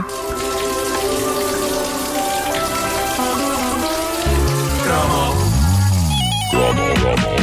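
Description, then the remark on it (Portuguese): A toilet flushing: water patters and splashes in a steady, dense stream, then a loud, low gurgling swirl rises and wobbles in the second half; no voices. “Olha o som delas a cair.”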